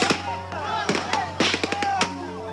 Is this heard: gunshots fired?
yes